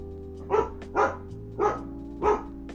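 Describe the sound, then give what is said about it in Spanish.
A dog named Peluche barks four times at a steady, unhurried pace, each bark short, over a low continuous background hum with no talking. “Bueno, Peluche le ladra malas energías. No es un perro malo.”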